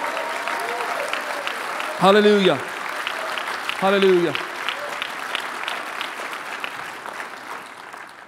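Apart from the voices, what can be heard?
audience applause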